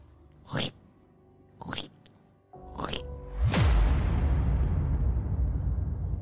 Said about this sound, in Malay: Aku dengar bunyi macam benda lembik yang berair kena picit. Ha, benda lembik yang berair kena picit yang menghasilkan bunyi yang sangat-sangat menjengkelkan.